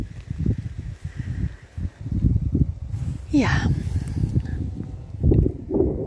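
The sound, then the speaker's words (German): Gusty wind rumbles and buffets outdoors with some city sounds, with rustling leaves in the mix and a brief rising whistle-like sound midway; a person speaks briefly. “Und mit diesem Wind und Blätterrauschen und ein paar Stadtgeräuschen verabschiede ich mich und wünsche dir ein schönes Mabon.”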